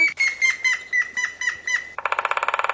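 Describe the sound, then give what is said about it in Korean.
Cartoon-style woodpecker effect: a string of bright, squeaky bird calls, then a fast, even burst of rapid tapping pulses at the end. It's fairly loud, with no talking. “어, 음, 난 제일 좋아하는 거. 딱따구리”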